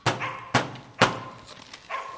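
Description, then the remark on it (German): Police use a door knocker on the wooden door of a small house in a dark alley: three heavy knocks at a steady, deliberate pace, each blow ringing briefly, followed by a softer fourth knock. “den Türklopfer noch einmal bediente, diesmal etwas heftiger, öffnete sich die Tür unter einem leisen Quietschen.”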